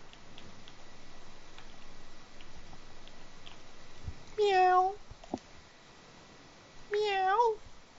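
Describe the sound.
A person imitates a cat with two drawn-out meows, each a second or less, separated by a short pause and loud against a quiet background with faint ticking.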